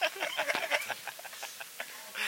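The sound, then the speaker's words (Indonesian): A crow caws in a rapid run of harsh, raspy calls, about a dozen short bursts over two seconds, moderately loud, with no talking over it. “ada ada burung gagak lagi bilang ke gagak bacot bacot bacot bohong bohong”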